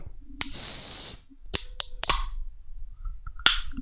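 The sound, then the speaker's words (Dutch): A drink opens with a sharp pop and a second of loud fizzing hiss, followed by a few crisp clicks and knocks; no one speaks. “Klinkt goed. Ehm, hij is open.”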